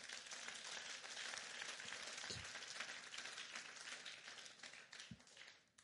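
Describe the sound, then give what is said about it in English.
A crowd applauds steadily, a dense wash of many hands clapping at once, sustained and fairly loud throughout before easing off slightly at the very end. “Give the Lord a big hand.”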